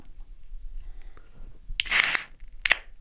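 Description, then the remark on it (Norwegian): A fresh bottle of Munkholm beer is opened: a short, bright hiss of escaping gas, followed by a sharp little click or clink. No one speaks over it. “Munkholm er digg, og dette er lyden av en helt fersk Munkholm.”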